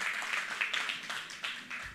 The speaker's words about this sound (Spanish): Entonces, un aplauso.